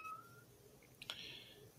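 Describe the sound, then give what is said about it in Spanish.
Faint, high-pitched mewing from baby kittens about six weeks old, a thin cry followed by a brief sharper squeak, quiet against a soft background hiss, with no talking. “Gatitos bebés, ahí andan.”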